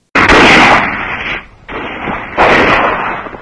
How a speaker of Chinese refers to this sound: 芦花村里的人听见河沿上响了几枪